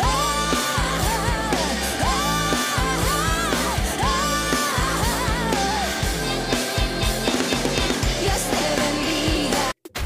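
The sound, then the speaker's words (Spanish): A loud, dense rock song, a new release due 20 January 2023 by a band that started in Bogotá, plays continuously, with driving drums, distorted guitars and a strained, shouted-sounding lead vocal, cutting off abruptly near the end. “ellos traen nueva canción el próximo 20 de enero de este 2023.”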